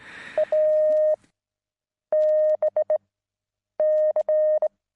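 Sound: morse code letter S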